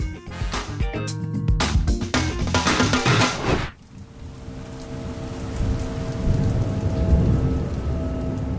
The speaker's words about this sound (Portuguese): Chovia. Era uma chuva raivosa, daquelas que enchiam as ruas com poças que as sarjetas, entupidas e imundas demais, não davam conta de escoar. Uma chuva que combinava perfeitamente com aquela noite.